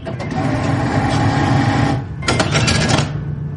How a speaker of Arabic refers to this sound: في اصوات كلنا نحبها مثل جمهور فريقك بعد ما يجيب الجول بالدقيقة 90 أو صوت الفلوس وهي نازلة من الصرافة بعد ما نزل الراتب